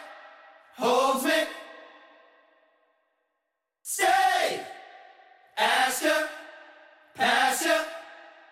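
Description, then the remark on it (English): Four loud bursts of several voices singing the same thing together in unison as shouted gang vocals, each a short harmonic yell with echoing reverb trailing off, spaced a second or two apart with a longer gap after the first. “These these are true gang vocals. We're all singing the same thing. It's almost kind of like shouting or yelling, right?”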